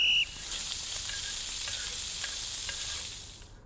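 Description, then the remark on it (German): A short high tone opens a sizzling frying-pan jingle, followed by a steady, crackling hiss of food frying for about three seconds before it fades out. No voices. “Hast du es gehört? Unser Brut, ja, unsere ja, Bruzzarella ja, ist wieder zurück.”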